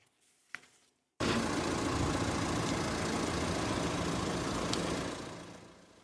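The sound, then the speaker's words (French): A parked car's engine idles steadily, a constant low rumble that starts abruptly after a brief click and quiet moment, then gradually fades toward the end. “Mathieu Klein, le maire socialiste de Nancy, vient de signer un arrêté pour verbaliser les voitures qui tournent hors de la circulation.”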